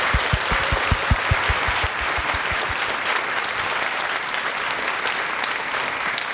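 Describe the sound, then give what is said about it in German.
An audience at a live Eat, Read, Sleep show at the Frankfurt Book Fair applauds steadily, a dense wash of many hands clapping at a fairly loud, even level, with a few sharper individual claps standing out at the start. “Vielen Dank an dieses wunderbare Publikum. Applaus”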